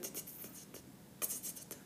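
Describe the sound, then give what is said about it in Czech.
A voice imitates a box of tiny strawberry sugar sprinkles, about 1 mm across, being scattered all over a kitchen: a quiet run of short, dry, hissing bursts that rustle and skitter unevenly for a couple of seconds, with a slightly stronger cluster near the end. “takovýhle zvuk to udělalo a já jsem věděla i za těma zádama, jsem byla otočená, že právě pro mě nastala apokalypsa”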